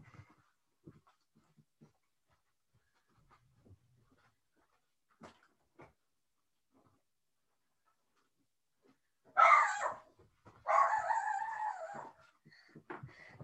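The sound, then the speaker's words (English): After a long quiet stretch with a few faint clicks and taps, a dog at the door lets out two loud bursts of barking, the second longer and more drawn out, with no talking. “And um, the dog was going a little crazy at the door.”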